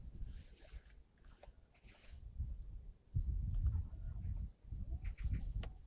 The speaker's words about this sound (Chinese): 喜鹊报什么警啊？ 那喜鹊觉得它有有危险。